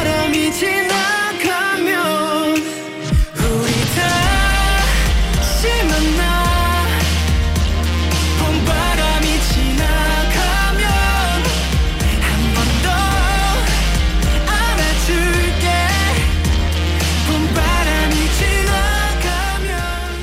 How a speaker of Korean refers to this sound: 그러면 또 이쯤에서 노래 한 곡 듣고 와서 2부에 다시 더 많은 사연을 만나볼게요.